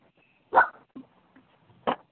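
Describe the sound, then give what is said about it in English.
A puppy gives two sharp, high barks about a second apart, with a few softer little yips between them, heard alone with no one talking. “And I'm outside and sorry, My puppy's barking.”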